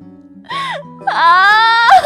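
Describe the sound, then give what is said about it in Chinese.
A voice acts out the scream of the story character Toby as a doctor gives him an injection in the buttocks: a short wavering cry, then a longer, loud, sustained high-pitched wail that climbs slightly in pitch before breaking off. “托比发出一声尖叫。”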